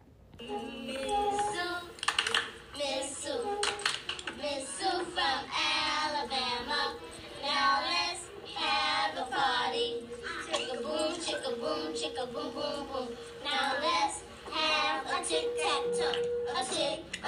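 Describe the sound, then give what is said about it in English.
A group of children chant a clapping rhyme in a steady sing-song rhythm, with sharp hand claps keeping the beat throughout; a 1978 recording made in New York City. “Now let's listen to a version of the same song from 1978 in New York City.”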